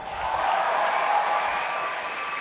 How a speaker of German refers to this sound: Das ist Applaus, Applaus wert.